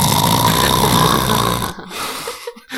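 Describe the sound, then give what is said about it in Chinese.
A voice imitates the loud snoring of a driver sleeping at night: one long, harsh, rattling snore lasting under two seconds, followed by quieter breathy, snuffling noises trailing off. “他的狗的声音是响彻云 我 霄， 听得出来”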